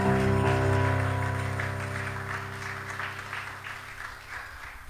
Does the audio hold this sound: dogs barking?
no